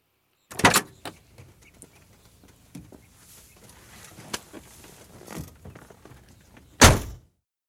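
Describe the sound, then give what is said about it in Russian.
At a hospital, a car door thuds shut near the start, followed by rustling and shifting as someone settles into the seat, then a second solid door slam closes the sequence as people get into the car. “Мы в машину садиться будем, или ты собираешься историю о моем правополучении на виду всей больницы слушать?”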